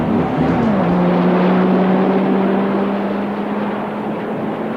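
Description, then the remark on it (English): A loud, continuous engine roar with a steady low hum that dips slightly early on, as special rocket motors behind a car's flip-down rear lights fire and propel the car up and over a fence manned by armed soldiers, with no talking. “I operated the controls to flip down the rear lights of the car, revealing the special rocket motors which propelled the car up and over the fence into”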